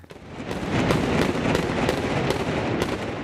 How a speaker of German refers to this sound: So klangen die Prangerschützen bei ihrem Altjahresschießen.